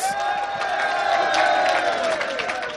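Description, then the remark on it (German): A burst of studio applause and cheering during a quiz, steady dense clapping mixed with crowd whoops and a few high whistling tones, loud and continuous for about three seconds with no talking over it. “und das ist sein Applaus.”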